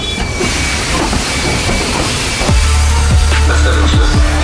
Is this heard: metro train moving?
yes